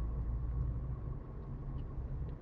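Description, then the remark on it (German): A Porsche sports car engine rumbles steadily, a deep, continuous low growl that stays fairly even in loudness throughout, with no voices. “Sag mal, hier Porsche.”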